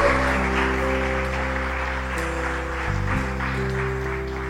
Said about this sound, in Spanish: ¿Por qué no le regalamos un aplauso al Señor, iglesia?